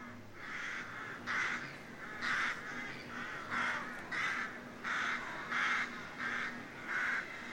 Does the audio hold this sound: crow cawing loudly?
yes